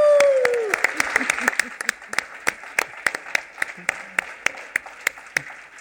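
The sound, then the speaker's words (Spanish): An audience applauds itself steadily and fairly loudly at the close of an event, a dense wash of clapping with sharper individual claps popping out in a loose rhythm, plus a brief falling whistle at the start. “Vamos a darnos un aplauso a nosotros.”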